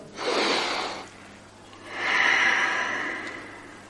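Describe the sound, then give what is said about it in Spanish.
Two long, airy breaths of deep breathing: a deep inhale followed after a brief pause by a slow, slightly louder exhale, with no talking. “A través de la respiración profunda, inhalar, exhalar”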